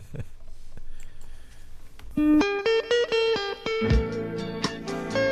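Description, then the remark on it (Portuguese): After a couple of seconds of quiet hiss, a snippet of a song comes in: a bright, slightly buzzy melodic line of sustained notes stepping up and down, fairly loud. “Vê lá se te lembras desta música.”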